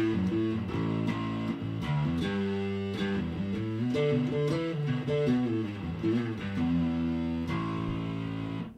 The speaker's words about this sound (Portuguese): Deixa eu saturar bem aqui. Pra gente pegar um somzinho de um, fe... de um... De um fuzz aqui. Deixa eu dar um blend. O, o fuzz é aquele som sujão, né? Podrão.